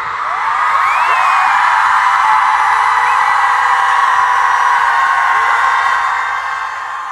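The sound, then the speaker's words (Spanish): A large crowd of women at a protest in Mexico City shouts and screams loudly together, a dense sustained roar with rising whoops and yells, continuous for several seconds before easing slightly at the end. “Vamos a gritar fuerte para que nos escuche el presidente y nos escuchen en todo el mundo.”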